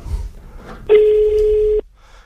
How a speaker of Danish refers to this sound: Okay, så ringer jeg op igen.